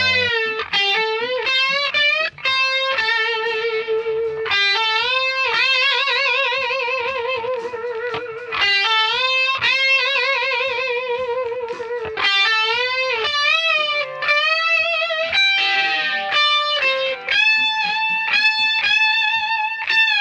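An isolated electric guitar wails alone, holding long, bending notes with heavy vibrato in short sustained phrases, loud and steady throughout with no voices.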